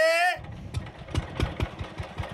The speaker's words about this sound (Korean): 놀라 달려온 경비 아저씨가 빨리 경운기를 빼라고 성화를 하시자 할아버지는 저를 내려주시고 또다시 경운기를 탈탈탈탈 돌리시더니 주변 사람들한테 큰 소리로 외치셨죠.